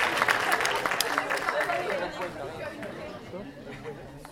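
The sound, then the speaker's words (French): An audience at a quiz claps and cheers for the winner in a dense burst, the clapping strongest at the start, then fading into a lively crowd murmur with voices chattering underneath. “On peut l'applaudir bien fort”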